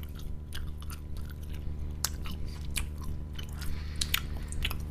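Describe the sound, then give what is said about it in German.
Wet chewing of sour candy with sticky smacks and small crunchy clicks, repeating irregularly for several seconds with no talking. “Rein damit. Erstmal ein bisschen kauen, erstmal geht's.”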